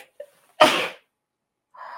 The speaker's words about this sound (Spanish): Ay, qué placentero. Amo estornudar.